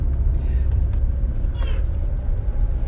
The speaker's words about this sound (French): Je me fais klaxonner, vous en avez entendu